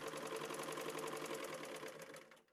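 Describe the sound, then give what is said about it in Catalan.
An old sewing machine runs at a rapid, steady clatter of needle strokes, fairly loud, then slows and fades out at the end. No one speaks. “una màquina de cosir antiga o més moderna, perquè els darrers anys també s'han incorporat ja màquines de cosir més eh, modernes.”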